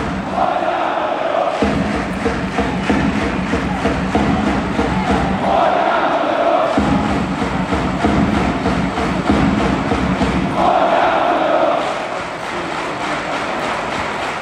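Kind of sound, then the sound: crowd, football stadium crowd chanting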